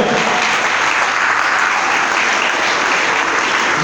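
Sustained audience applause given to the Lord, a dense, steady wash of many hands clapping at a loud, even level for several seconds with no voices standing out.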